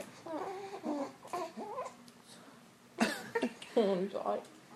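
A fussy baby boy, close to falling asleep, babbles and whimpers in short, wavering bursts, with a brief pause before a louder, more restless stretch of fretful vocalizing.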